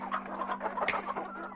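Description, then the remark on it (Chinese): Several hens cluck together in a busy, overlapping chatter of short, sharp calls, with a few higher squawks poking through over a steady low hum. “所有的母鸡也都点头赞成。”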